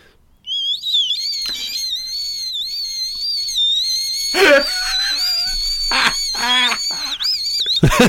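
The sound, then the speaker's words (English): A person whistles a sustained, wavering high tone imitating the howl of roof bars on a Land Rover Discovery 2 driving too fast past a house, loud, with a few brief breathy bursts breaking in. “it's my best impression of a Land Rover Discovery 2 driving too fast past my house.”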